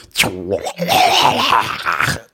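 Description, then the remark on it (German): A voice mimics a dishwasher door opening and clunking shut: a strained, grunting vocal sweep followed by a longer rough, noisy groan, fairly loud, about two seconds. “Das klingt wie, ey, ich war mal Lörrach und ich, du weißt, wie das klingt, wie manchmal, wenn man die Spülmaschine aufmacht und wieder zuklappt, dann kommt so ein”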